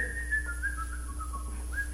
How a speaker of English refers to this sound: But you start whistling.